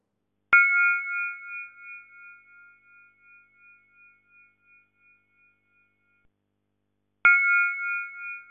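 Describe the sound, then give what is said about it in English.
An NMR free induction decay of a single atom, its radio-wave signal rendered as sound: a clear, bell-like ringing tone that starts sharply and fades slowly over several seconds, then strikes again near the end. No talking. “So what you just heard was actually the free induction decay, the um, release of the of the wavelength energies on the radio wave of a single atom.”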